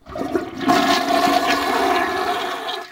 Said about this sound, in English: So uh, yeah, it's noise effect. Flush that toilet for me.